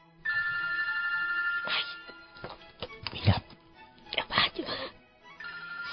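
A cell phone rings in a theater with a bright, steady electronic tone, cuts off, then starts again at the end, with brief rustling, muffled vocal noises and scattered shuffling in the quiet between.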